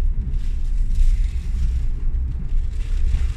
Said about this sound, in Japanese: やばいわこれ舐めとったねなめとった風強っ